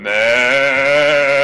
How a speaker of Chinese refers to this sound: 绵羊嚎叫